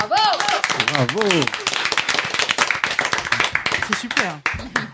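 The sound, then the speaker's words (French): Steady applause from a group, dense overlapping claps running the full length, with a raised voice and some laughter over the first second or so. “Pourquoi on l'applaudit à chaque fois”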